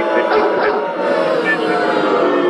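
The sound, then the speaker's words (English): A dog sound effect: a couple of quick, sharp barks, then drawn out into a sustained, wavering howl, loud and filling the whole short stretch without pause. “That's a long dog. That's a wolf that's howling,”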